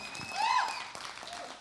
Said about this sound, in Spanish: un, aplauso por favor,